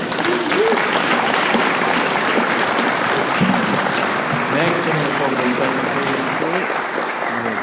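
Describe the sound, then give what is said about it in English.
Steady, sustained clapping from an audience at an even loudness, with faint voices murmuring underneath throughout. “another round of applause?”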